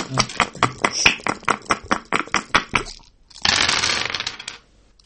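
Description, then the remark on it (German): Dice clatter in a quick run of about a dozen sharp clicks over three seconds, then a brief gap and a dense rattling burst as they settle, fairly loud, with no talking. “Ich würfel jetzt.”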